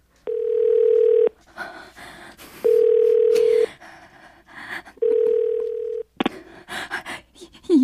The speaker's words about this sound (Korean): 너무 놀라서 저는 그 자리에 차를 세우고 덜덜 손을 떨면서 남자친구에게 전화를 걸었죠.